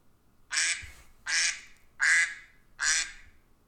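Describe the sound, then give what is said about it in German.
A duck quacks four times in a steady, evenly spaced rhythm, each quack loud and raspy, with brief quiet gaps between them and no talking. “So, das war die Ente.”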